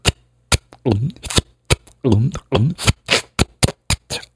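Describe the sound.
A voice imitates trout rising and splashing at the surface of a stream during a mayfly hatch, a quick run of sharp mouth pops and clicks mixed with short voiced blips, fairly loud, in an uneven rhythm.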